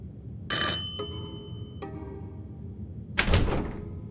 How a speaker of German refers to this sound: Diese Klingel.